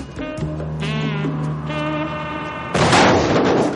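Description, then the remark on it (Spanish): Wavering, bleat-like tones give way near the end to a sudden loud explosion that blows open the rear door of a van, a broad crashing blast that keeps roaring and rumbling until the sound cuts off. “Este se abre en una explosión y todos huyen al instante.”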